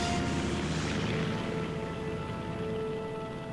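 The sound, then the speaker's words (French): A small propeller ski plane slides on its skis and takes off, its engine roaring loudly with a steady, rumbling drone, then the sound softens and thins as the aircraft flies away into the sky. “L'avion glisse sur ses skis, décolle, puis disparaît dans le ciel.”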